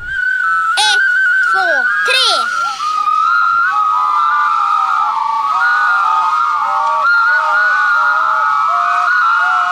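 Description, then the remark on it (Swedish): A crowd of children all blowing small clay whistles (lerduvor) at once, from the scene in Pippi Långstrump where Pippi buys one for every child. A loud, continuous tangle of shrill overlapping tones that warble and slide in pitch, with brief higher squeals early on. “måste i sånt fall vara scenen i Pippi Långstrump när Pippi köper en lerduva till alla ungar och så står alla bara och blåser som dårar.”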